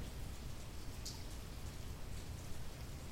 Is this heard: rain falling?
yes